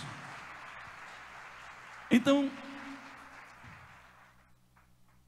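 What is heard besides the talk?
audience applause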